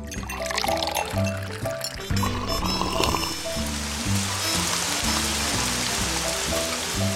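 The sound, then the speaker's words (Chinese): Steady rain falls by the River Thames with a dense, even hiss that swells after the first few seconds, over a looping melodic music track with repeating low notes. No one speaks. “哎呀，这鬼天气又下雨了，真麻烦哟！”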